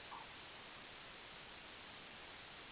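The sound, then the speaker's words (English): A steady, unbroken wash of ocean surf noise fills the background, a soft hissing roar with no distinct waves standing out and no voices. “Sorry about okay, the background back noise. Yeah, sorry That's about that. It's the ocean.”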